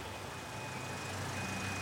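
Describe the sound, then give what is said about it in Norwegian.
A small truck backing up at the end of a bridge, its high reversing beeper sounding over a steady engine rumble and broad road noise, fairly quiet. “Idet Sander svarer, hører de en liten lastebil på enden av brua. Den rygger.”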